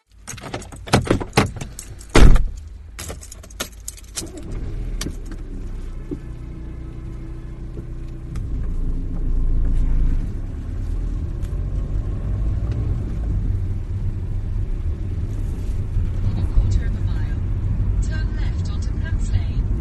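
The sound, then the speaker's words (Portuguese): Keys jangle and clatter, then a car engine starts and settles into a steady low rumble as the car leaves home early, driving toward West Brom near Birmingham in central England, with a voice talking over the road noise. “Estou aqui no carro”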